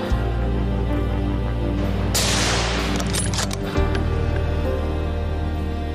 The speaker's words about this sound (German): Mit gutem Schuss bricht das Alttier nach einigen Metern vor der Deckung zusammen.